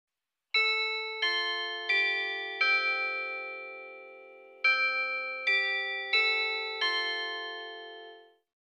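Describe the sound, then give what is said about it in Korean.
A school bell chimes a melody of eight clear, ringing notes in two phrases of four, each tone lingering and fading. The bell sounds loud, with no voices. “종이 울렸다.”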